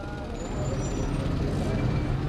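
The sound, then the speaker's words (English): Dense, steady rumble of a huge traffic jam of trucks and buses waiting to get into a cemetery in Iran on a Friday morning, a continuous low drone of idling engines with faint tonal whines on top and indistinct voices mixed in. “There's a huge traffic jam to get in.”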